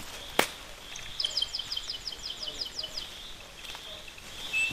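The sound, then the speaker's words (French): Small hummingbirds chirping among fruit and flowers in a forest plot: a quick series of about ten thin, high-pitched chirps in a steady rhythm, fairly faint, over a soft outdoor hush, with a sharp click just before. “Ah, des colibris. Des petits colibris.”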